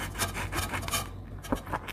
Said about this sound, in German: Nun schneide ich die Zitronen auf.